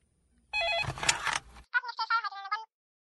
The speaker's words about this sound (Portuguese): O telefone não para.